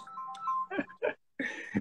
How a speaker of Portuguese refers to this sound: Para tem... o telefone aqui, meu. Peraí, deixa eu desligar aqui. Beleza. Telefone, tá param quieto, meu.